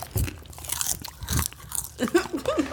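Someone munches crunchy kettle corn, with several loud, irregular crunching bites across the first half, then softer chewing as a voice murmurs briefly toward the end.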